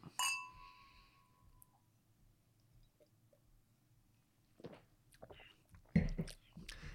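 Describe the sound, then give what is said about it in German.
Two glasses clink together once in a toast, bright, their clear ring fading over about a second. Quiet follows, then some soft handling and shuffling noises. “Aber als erstes würde ich mal sagen, stoßen wir mal an.”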